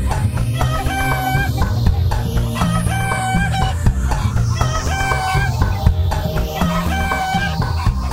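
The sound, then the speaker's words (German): A flock of chickens clucks steadily and loudly, with a rooster crowing several times in a repeating pattern over the busy cackling. No one speaks. “Und so wurden 25 Hühner gekauft. Die liefen jetzt auch alle im Schloss herum.”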